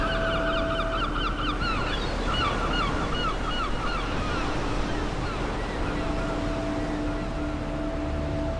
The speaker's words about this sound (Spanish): Seguimos en costa, pero este mar es más bravo y bastante más oscuro. Este mar es mar, cuidadito, cuidadito, el mar de Oyotsk, que está en el Océano Pacífico junto a la zona más oriental de Rusia